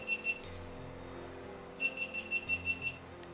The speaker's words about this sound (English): Is it that one beeping?